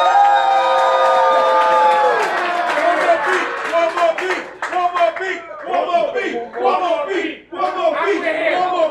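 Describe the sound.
A crowd cheers loudly to vote for the winner of a battle, with shouting, whooping voices and steady clapping. The roar stays full for the first few seconds, then breaks into uneven surges of yelling and applause.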